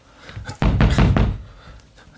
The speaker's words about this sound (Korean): 여보, 문 좀 열어봐. 노크를 해도 아내는 문을 열어주지 않았다.